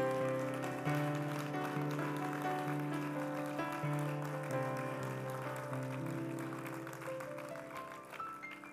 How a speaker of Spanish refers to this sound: Dale un aplauso al Dios de gloria.